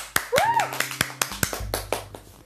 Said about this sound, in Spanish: Así que Un aplausito, gente, para estos tips.